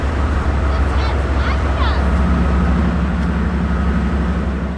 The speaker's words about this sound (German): Wie es sich für das amerikanische Klischee gehört, sind die Züge natürlich auch größer als die Züge in Deutschland. Die Spurbreite ist weiter, entsprechend sind die Züge breiter und höher und ewig lang und super laut.